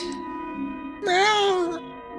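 A single loud, drawn-out cat meow that rises and then falls in pitch, lasting under a second, over a faint steady background hum.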